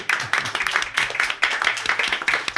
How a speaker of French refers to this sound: Et on vous applaudit encore une fois. Bravo.